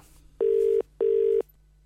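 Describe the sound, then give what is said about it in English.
An outgoing phone call: a telephone ringback tone sounds twice in quick succession, a steady double ring heard clearly down the line, with faint line hiss in the gaps and no one speaking. “we're going to make a phone call to see who will be going along and winning that voucher”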